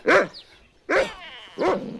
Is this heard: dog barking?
yes